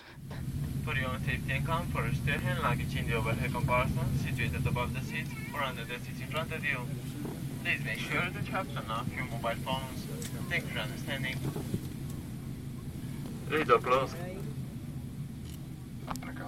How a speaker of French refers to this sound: je vous propose euh, une petite, euh, un petit départ en voyage, un petit décollage d'avion dans un avion roumain euh, au, départ de Bucarest.